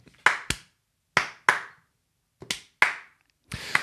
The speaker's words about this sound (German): steht auf und klatscht langsam.